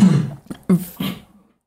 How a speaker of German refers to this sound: weil, jetzt habe ich kurz den Faden verloren, weil der … wieder gehustet hat.